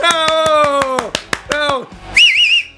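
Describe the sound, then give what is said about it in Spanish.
A small group claps in short, uneven bursts for the show's producer while voices whoop along, and a high, warbling whistle rings out over the end. “Bueno, somos pocos aplaudiéndote, pero sirve.”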